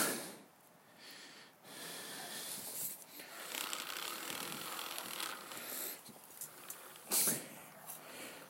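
A spinning wheel running fast to spin fine yarn whirs rapidly up close, a steady, breathy mechanical drone like a propeller or chopper, pulsing with brief louder surges and no voices over it.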